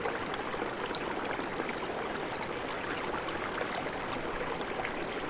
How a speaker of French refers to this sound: Ceci, dans le lit du fleuve, comme de petites cascades. Et amène à son eau cristalline un rythme différent.